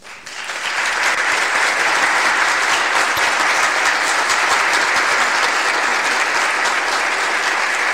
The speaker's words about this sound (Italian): sinceramente sono molto molto molto contento dei risultati, quindi l'applauso, anche se finto, va a voi.